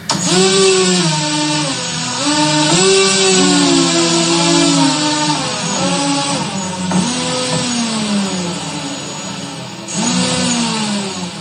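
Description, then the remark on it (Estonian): Drone motors, run at set frequencies as a musical instrument played from a keyboard, whine loudly and continuously, their buzzing pitch sliding and stepping up and down between distinct tones, almost like a melody, with no voices. “erinevatel sagedustel droonimootorid teevad ju erinevat häält, nagu iga mootor teeb erinevat häält.”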